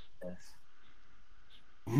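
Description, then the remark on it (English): A person in deep sleep snores: a short, throaty snore rumbles, then quiet breathing-like noise follows before a louder snorting burst cuts in at the very end. “who's snoring?”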